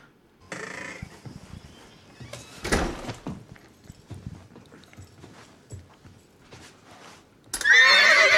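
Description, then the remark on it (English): A horse in a house whinnies loudly at the end, after a stretch of hooves clopping and shuffling on a hard floor, with a thudding knock partway through. “There's a horse in your house.”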